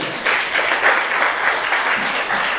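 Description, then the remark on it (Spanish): A Spanish-speaking church audience in Brussels applauds the Lord after a prayer, many hands clapping together in a dense, steady wash of sound that holds at a fairly loud level from start to finish, with no talking over it. “un aplauso al Señor.”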